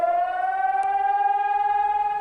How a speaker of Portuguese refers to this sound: Desta vez, a sirene tocou.